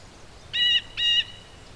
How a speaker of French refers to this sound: Qu'est-ce qu'il dit Frêne, toi tu comprends le langage des oiseaux, pas moi.